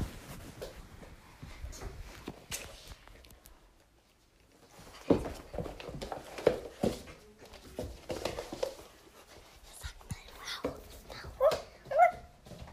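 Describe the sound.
A person playing the role of a dog in a role-play imitates a dog with scattered yips, whimpers and short barks, some spaced apart and some in quick bursts, with louder, higher-pitched yelps near the end.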